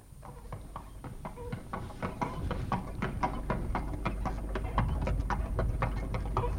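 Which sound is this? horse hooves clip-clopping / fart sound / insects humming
horse hooves clip-clopping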